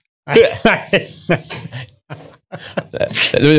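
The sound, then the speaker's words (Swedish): A person vocally imitates a lion's roar in a series of short, strained growling bursts, fairly loud, ending in a longer rising roar with some chuckling mixed in. “Då har inne på Sveriges absolut sämsta imitation.”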